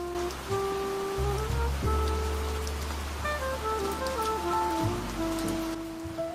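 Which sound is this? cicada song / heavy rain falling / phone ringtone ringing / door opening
heavy rain falling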